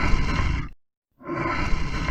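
A lion roars twice, loud and rough with a deep rumbling growl, separated by a brief moment of silence. No voices are heard.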